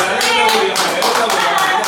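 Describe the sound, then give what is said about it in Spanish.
Loud, sustained applause from a group, with many hands clapping in a dense, crackling patter that keeps an even level throughout. “Concha, un aplauso para”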